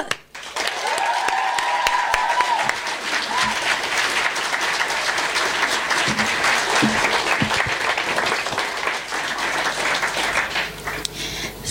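An audience applauds warmly, many hands clapping in a dense, steady patter that holds at an even loudness before thinning out near the end, with faint cheering in the first seconds.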